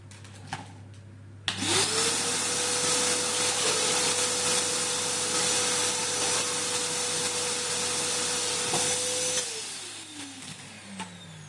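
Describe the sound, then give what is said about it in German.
A loud pneumatic tube mail system blower suddenly starts with a rising whine, then roars steadily for several seconds as air rushes through the pipe sending a capsule of post, before winding down with a falling pitch. No one speaks. “Und wie das Ganze klingt mit dem Verschicken dieser Post, da haben wir mal was vorbereitet.”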